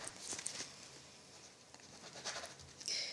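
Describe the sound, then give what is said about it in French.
Quiet scratching of a pen moving across paper as someone signs a declaration for an inspector, a few short strokes and scribbles in quick succession, soft with no voices. “Eh, mettez vos déclarations ici s'il y a quelque chose à dire, et puis sinon vous signez à côté”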